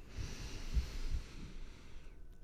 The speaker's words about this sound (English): And then we would start breathing synchronously together. So I would invite them to breathe in through your nose